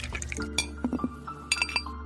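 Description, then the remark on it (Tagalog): Drinking glasses clink together in a toast, a few bright, ringing taps in two quick bursts, clear, with faint liquid sounds in the background. “Pre, tagay muna tayo, inom tayo.”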